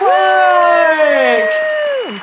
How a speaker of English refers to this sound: And then the first, obviously, uh, we need applause here immediately following this.